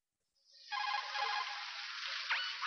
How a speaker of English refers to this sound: Right, I guess this is a call.